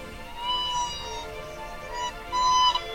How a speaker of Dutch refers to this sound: Daar staat Roya, een iets kleinere Siberische witte kraanvogel ze schudt met haar veren, haar snavel gaat omhoog en ze laat haar lokroep horen.